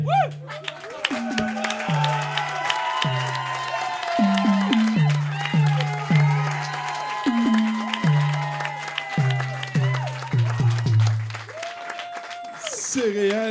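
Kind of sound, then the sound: crowd, audience applause and cheering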